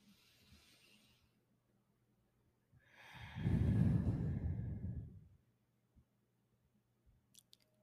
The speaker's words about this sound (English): And with that being said, let that belly out. Take in a deep breath with us.